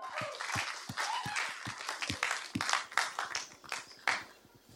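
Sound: audience applause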